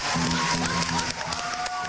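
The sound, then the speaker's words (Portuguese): A crowd of followers applauds a man in a video, steadily for about two seconds, a dense, continuous wash of clapping with some voices and a faint tonal hum mixed underneath. “e vocês veem como realmente os, os seus seguidores o aplaudem.”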